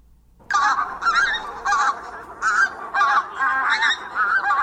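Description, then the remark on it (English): Geese honk loudly and repeatedly in a rapid, overlapping series of nasal calls, starting after a brief quiet moment and continuing steadily throughout. “Two geese species from the far north have been in the news recently the pink footed goose and the tundra bean goose.”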